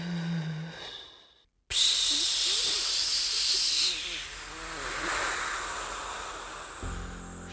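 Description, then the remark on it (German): A steady, loud hiss of air escaping from a punctured bicycle tire starts abruptly after a short silence and keeps going with little change. “Ja, das hört sich auch sehr nach Schlange an, ist aber das Geräusch, das ein kaputter Fahrradreifen machen könnte.”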